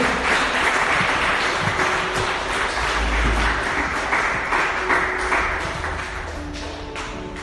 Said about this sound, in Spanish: Y denle un aplauso bien fuerte al Rey de Reyes y señores, Señores.